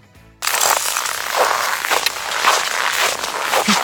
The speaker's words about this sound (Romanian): Ăștia da, sunt... să mergem prin zăpadă. În pașii mei mici.